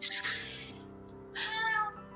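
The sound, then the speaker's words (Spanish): A cat meows twice, each call drawn out and tonal, separated by a brief pause. The meows sound clear, with no talking over them. “Ay, otra vez, gato.”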